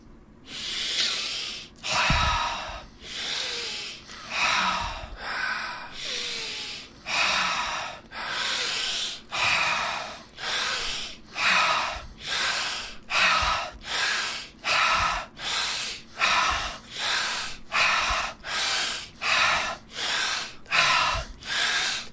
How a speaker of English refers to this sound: we're going to do is we're actually going to hold the inhale this time. Sometimes we hold the exhale, but we're just going to, last breath, we're going to take a big oxygen in. We'll hold the inhale.